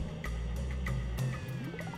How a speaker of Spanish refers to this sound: Se escucha cómo pasan las motos y los autos por afuera, estoy con la ventana abierta, que hace un calor de mierda.